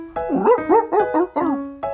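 A dog, Rufus from Busy Bodies Funny Feelings, barks about five times in quick succession, the barks loud and slightly whiny, with a steady tonal hum underneath and no talking.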